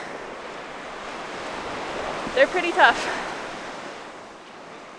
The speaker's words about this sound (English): You can barely use your scope because the wind's shaking your tripod so bad and ducks are still flying in that sort of weather.